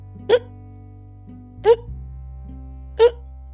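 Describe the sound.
A voice imitates a throat choking, with three sharp, throaty hiccups, evenly spaced about a second and a half apart, each a short loud gulp over a low steady background hum.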